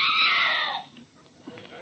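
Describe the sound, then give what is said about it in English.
A woman lets out a loud, shrill scream lasting under a second, then it cuts off and leaves quiet background noise. “In the very last row, a woman screamed and tried to dart out the door.”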